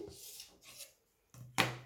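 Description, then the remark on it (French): A pen scratching along a ruler as it underlines a verb group in turquoise, in two short, dry strokes, followed by a pause and then two sharper scraping rasps with a soft knock. Fairly quiet, with no talking. “Du coup, je le souligne”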